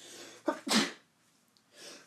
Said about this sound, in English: As I'm about to sneeze.